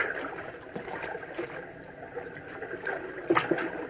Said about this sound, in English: Water. A brook. My tongue. It's, it's parched. Now I can drink. Now at last I can take a drink. Thank goodness for this brook.